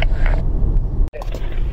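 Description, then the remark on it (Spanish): A 5 Series Touring station wagon driven hard, its engine and road noise a loud, steady low rumble that cuts out abruptly for a split second, as if shifting gear, then surges back. “Apretándole las tuercas a todo un Serie 5 Touring.”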